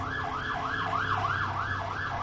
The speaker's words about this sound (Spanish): Ahorita que se vaya la ambulancia. Ahí está, ya, Nuestra amiga ambulancia, eso fue.